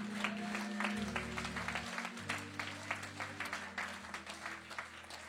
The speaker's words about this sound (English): Can you clap your hands and give God praise?